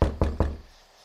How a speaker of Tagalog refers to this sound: Isang araw bandang alas tres ng hapon nagpunta ang mama ko sa banyo. Nakalak daw ang pinto kaya kinatok niya ng kinatok.